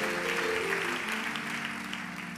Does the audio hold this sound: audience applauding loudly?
yes